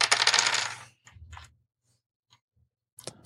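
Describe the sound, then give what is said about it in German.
Dice rattle and clatter across a hard table surface in a loud burst, followed by a few lighter tumbling clicks and a final skittering roll near the end, with no talking. “Okay, pass auf. Ich würfel für Christian.”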